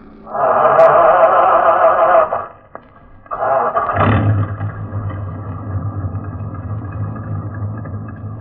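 A heavy truck engine cranks over in two short bursts, then catches and settles into a steady, low, rumbling run, with no one talking.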